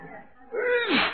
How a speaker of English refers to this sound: Now, how do you explain that second sneeze? Oh, well, um, maybe one good germ deserves another.